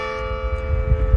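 A church bell strikes three times for quarter to one, a steady, sustained metallic tone that hangs in the air over a low background rumble, fairly clear and moderately loud, with no one speaking.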